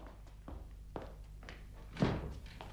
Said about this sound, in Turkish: Kapı çalınıyor. Ben bakarım.